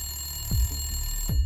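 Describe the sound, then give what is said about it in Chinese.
A telephone rings on its own with no one picking up, the school calling Lisa's home, two pulses of ringing over a steady high-pitched electronic tone, and no voices. “所以学校的人打电话到 Lisa 家的时候都没有人听”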